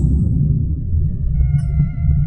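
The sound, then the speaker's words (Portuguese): A deep, steady low rumble of thunder from far-off lightning rolls on without a break, following two lightning flashes, with faint tonal hums and a few soft clicks drifting above it. No one speaks. “Não, é que foi, rolou dois, não, dois raios e depois o barulho.”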